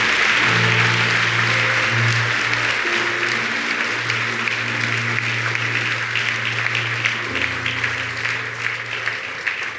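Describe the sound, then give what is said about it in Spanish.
An audience applauds steadily for about ten seconds, a dense, even wash of clapping with low sustained tones humming beneath it. “Aplausos a todos ellos, Dios mío, es una gran decisión.”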